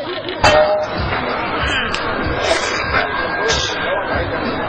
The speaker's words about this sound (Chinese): 让我们以热烈的掌声欢迎孔县长致辞。